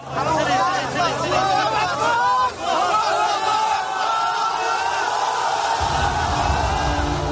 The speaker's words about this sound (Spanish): Escuchamos el momento en el que los voluntarios rescataban a un hombre bajo los escombros.